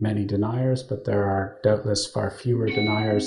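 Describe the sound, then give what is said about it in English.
A thin, high electronic alert tone from the speaker's mobile phone chimes faintly beneath continuous speech toward the end, a steady beep that is partly masked by the talking voice. “Oh, I'm sorry, that was my phone.”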